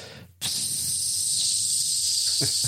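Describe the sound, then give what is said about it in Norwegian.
A person makes a steady, sustained hissing noise with their mouth, imitating leaking water running across a floor into a tank room and down a hot water heater, starting abruptly after a brief pause and continuing loudly for a couple of seconds. “Og så renner det bortover gulvet inn på tankrommet, og det renner vann nedover varmtvannsberederen.”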